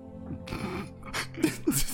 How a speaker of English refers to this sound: I no, I I'm coughing.